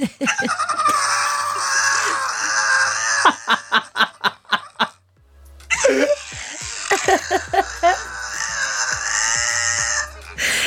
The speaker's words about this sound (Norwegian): er dette en hund? Ja. Det er ganske store hunder. Helt svart som Suki er morsom. Vi vil ha mer av henne.